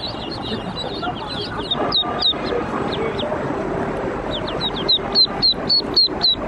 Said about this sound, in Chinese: 小小的鸭子在筐子里不停地叽叽喳喳叫着，看着周围来来往往的脚步，小黄鸭们有点惊慌失措。于是，有的在往外面挤，有的则想躲在中间。小黄鸭们叽叽喳喳的叫声吸引了不少的脚步在此停留。